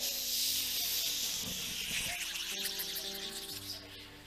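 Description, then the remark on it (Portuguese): A voice imitates a pressure cooker's hiss: a steady, breathy hissing held for about four seconds, fairly loud, fading slightly at the end over a faint low background hum. “Fecha uma panela de pressão e fica naquela rodinha lá, ó que a, a panela de pressão fica.”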